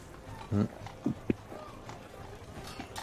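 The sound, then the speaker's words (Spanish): Faint horse sounds from an ambience track: a few short, soft clops or snorts spaced unevenly over a quiet, hissy background. “voy a detener un poquito el ruido de los caballos.”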